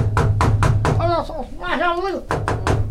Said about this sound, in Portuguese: tem alguém batendo na porta, cara. Não adianta bater, eu não deixo você entrar